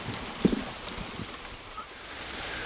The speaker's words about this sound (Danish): Ej, så står det bare og regner ned her, mens vi står og pakker.